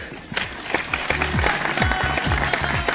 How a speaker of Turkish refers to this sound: Bu bir alkış etmez bunu ya. Bir alkış daha yapacağım valla.